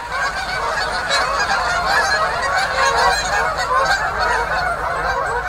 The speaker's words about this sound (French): Au même moment, sur le lac adjacent à nous, le lac Benjamin, il y avait un immense voilier d'outarde. Alors là, les, les se sont envolés.